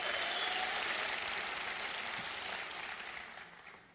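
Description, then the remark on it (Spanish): An audience applauds steadily, a dense wash of many hands clapping at once, starting loud and gradually thinning and fading toward the end, with no voices over it. “Te date un fuerte aplauso.”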